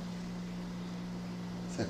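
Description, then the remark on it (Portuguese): An air conditioner gives off a steady, continuous hiss, like a pressure cooker, over a low electrical hum. It stays constant and fairly quiet throughout, with a brief soft bump near the end. “Que barulho é esse? Parece uma panela de pressão.”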